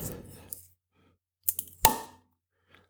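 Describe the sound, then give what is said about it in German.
A 0.33-litre swing-top bottle of 4.6% beer pops open with one crisp pop, preceded by a few small clicks and rattles of the wire clasp, then a brief hiss fades away. “Und jetzt mache ich das ganze Teil mal auf.”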